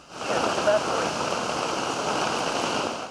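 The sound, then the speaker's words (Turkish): A sudden heavy downpour pours down in a dense, steady roar, blended with the rushing churn of fast-flowing floodwater turning a tunnel into a stream, loud and continuous throughout without any break. “Bir anda bastıran kuvvetli sağanak tüneli dereye çevirdi.”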